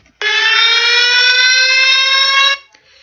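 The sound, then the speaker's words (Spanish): A loud, steady electronic alarm tone blares continuously for a little over two seconds, then cuts off abruptly into silence. It is a single sustained buzzing alert with rich harmonics and no voices. “Y alerta.”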